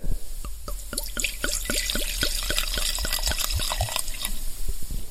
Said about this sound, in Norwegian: Nå skal jeg helle oppi glasset her, skal vi se.